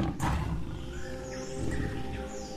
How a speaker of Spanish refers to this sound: Mientras, mientras tratéis de descansar un poquito, habéis escuchado un rugido que viene de lo profundo de la selva.